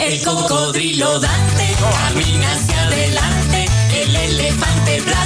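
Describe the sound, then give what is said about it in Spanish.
A bright, upbeat children's song plays loudly, with a bouncy bass line kicking in after a second and a cheerful voice singing lyrics over steady, full instrumentation. “Te pongo la canción que suena así.”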